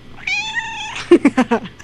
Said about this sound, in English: and ironically, the cat that's in the background, can you hear her? No. Oh, dang. Well, her name is Noodle. She approves.